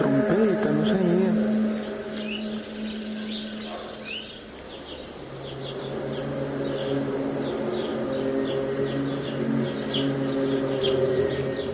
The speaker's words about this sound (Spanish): Creo que nuestros amigos oyentes de inmediato habrán identificado el famoso eco, el sonido de la trompeta, decían trompetas del Apocalipsis, ¿no?